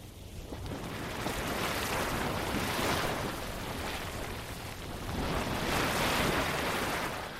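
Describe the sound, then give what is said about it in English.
Steady, loud rush of spraying and splashing water with a hissing quality, swelling in two broad surges, from Spasm Geyser, a small geyser in the Lower Geyser Basin of Yellowstone National Park. No voices. “Walk a little further along the lower geyser basin boardwalk, you'll come across the Spasm Geyser. It's a small geyser, and how much water it shoots up depends on the time of year there's less in the late summer.”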